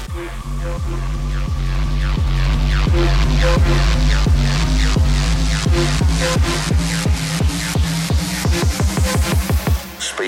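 An electronic music track plays loudly with a steady, driving beat, sharp rhythmic hits over a deep sustained bass drone and layered synth tones, no voices present.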